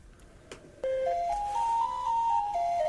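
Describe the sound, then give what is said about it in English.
A simple jingle tune starts up after a couple of faint knocks, its pure, steady notes stepping up and down in a short melody, fairly loud, with no talking. “Oh, I hear something. What's that? Oh, here come the baby elephants.”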